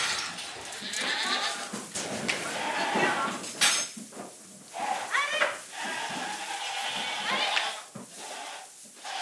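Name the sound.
goats bleating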